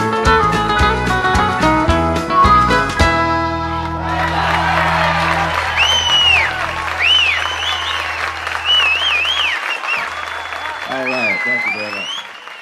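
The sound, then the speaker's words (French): A song ends on a final chord, then a small audience breaks into steady applause that continues to the end, with a few whoops, whistles and voices calling out over the clapping. “Maintenant, quand j'écoute cette chanson, les petits applaudissements et le merci à la fin, je les tourne dans ma tête vers les personnes qui nous ont aidés tout au long de notre chemin, vers les aventuriers de la route.”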